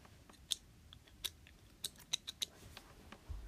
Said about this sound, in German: Ich frage mich immer wieder, wie du diese Schlürfgeräusche machen kannst.